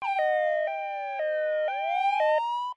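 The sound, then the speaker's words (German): A siren sound effect wails steadily, its tone gliding and stepping between pitches in a looping electronic pattern, loud for a few seconds before cutting off abruptly. No one speaks. “Mach die Sirene an”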